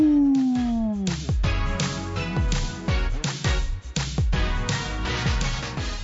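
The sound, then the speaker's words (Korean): A person briefly imitates a lone wolf's howl while cycling alone along the US West Coast, with a single gliding, falling vocal tone lasting about a second, then upbeat music with punchy drum hits takes over. “홀로 자전거를 타고 서부 해안을 질주하는 나는야 한 마리 외로운 늑대라고 할까 아우”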